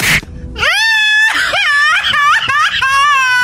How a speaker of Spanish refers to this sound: ¿Quién, llora y grita?